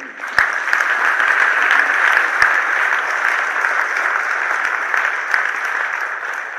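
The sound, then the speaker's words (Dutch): Sustained audience applause fills the whole stretch, a dense, steady clatter of many hands clapping at even loudness, with a few sharper individual claps popping out of the wash. “Wilt u mij vrouw? even een applaus geven?”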